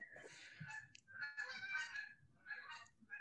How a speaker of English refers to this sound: Who's got geese? Uh, they just flew over the tiny mm home. Yeah, there were uh, one, two, three, eight of them.